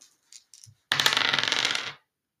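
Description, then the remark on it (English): A few light clicks of dice being picked up, then a brief burst of dice clattering and rattling across a hard surface for about a second before settling, fairly loud. “The Astro Gallimancer gazes into the dice.”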